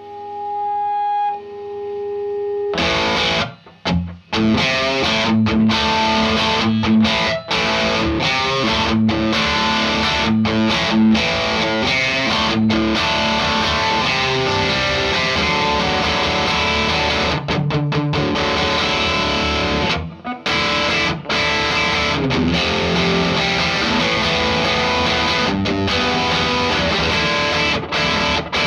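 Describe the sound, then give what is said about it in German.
Heavily distorted electric guitar through an amplifier's Single Column High Gain setting plays loud, dense chugging riffs with sharp stops and restarts, a thick saturated buzz filling the spectrum after a brief quiet tone at the start. “so also Single Column High Gain ist eigentlich auch manchmal ganz geil.”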